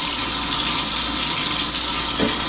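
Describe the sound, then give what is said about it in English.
A steady, loud rush of running water from a shower tap, a continuous hiss with no pauses and no voices over it, as someone runs the water to do a lather test with a bar of soap. “Got the water running.”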